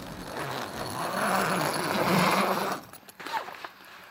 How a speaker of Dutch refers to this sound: Dit is het geluid van een rits van een voortent. Voortent, dat staat aan onze caravan. We zijn voor een eh, paar dagen vakantie in het dorpje Nietap. En Nietap ligt tussen Leek en Roden ja, op de grens van Groningen-Drenthe.